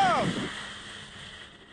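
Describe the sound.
A steady roar of storm surf and wind as waves pelt over the beach dunes on the North Carolina coast, fading gradually, with a brief voice trailing off at the very start.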